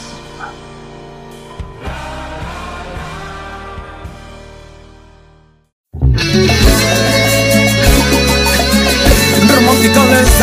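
A romantic song plays as a ringtone: a soft melodic opening fades into a brief silence, then the full song bursts in loud with a steady, driving beat and bright layered instruments.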